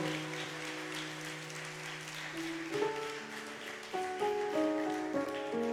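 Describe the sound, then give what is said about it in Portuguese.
An audience at a church service claps steadily for God in a dense wash of applause, while sustained organ or keyboard chords play underneath and shift upward partway through. “Aplauda Ele, aplauda Ele.”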